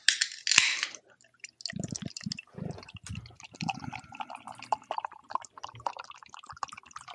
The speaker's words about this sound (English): Well, that sounds refreshing. It does. Are you pouring that right in front of the mic? I am. There's no way that's three feet away.